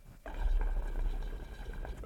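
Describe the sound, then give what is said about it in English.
Water bubbles and gurgles steadily inside a glass bubbler pipe, starting abruptly and continuing as a moderately loud churning burble with no voices. “oh, that fucking bubbler.”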